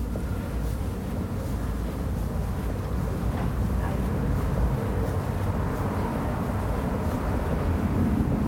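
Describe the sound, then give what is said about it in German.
A steady, muffled rumble of distant car traffic near a tram street drifts through the whole stretch, low and continuous, with no voices; passing cars move from one side to the other, their pitch rising as they approach and falling as they move away. “Autos hört man nur verschwommen aus Distanz, aber immer noch klar mit Bewegung vom einen in den anderen Kopfhörer.”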